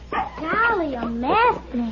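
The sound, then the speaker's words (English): A small dog named Rags, lying on the ground, whimpers and yelps, letting out a few drawn-out, wavering cries that rise and fall in pitch, fairly loud and pained-sounding. “There's small dog and ground. The dog seems to be hurt.”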